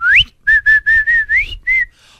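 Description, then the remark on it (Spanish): A person whistles a short call, as when passing by someone's house: a rising slide followed by a quick series of five steady, clear notes and a final drawn-out tone, loud, with no talking. “Cuando paso por tu casa y te chiflo.”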